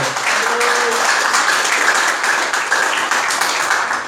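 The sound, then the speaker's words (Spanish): A large crowd applauds the Lord steadily, a dense, loud wash of many hands clapping at once that holds at an even level for several seconds, with a faint murmur of voices underneath. “Denle un Señor el aplauso, por favor.”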